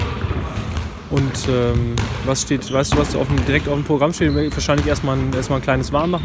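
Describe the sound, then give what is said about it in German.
Handballs bounce on a sports hall floor in the background during a handball camp training session for boys' youth teams, sharp irregular thuds with a hollow echo, beneath continuous talking. “Man hört die Bälle ja wahrscheinlich so ein bisschen im Hintergrund.”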